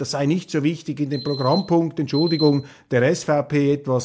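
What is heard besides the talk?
timer alarm ringing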